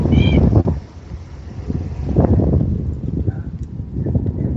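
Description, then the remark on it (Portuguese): A cat gives a short, high meow at the start and a softer one later over steady rustling, crinkly background noise; the cat wants to get into a shopping bag of clothes. “Ele, ele adora uma sacola, ele queria muito entrar na sacola. Gato, gato adora, né?”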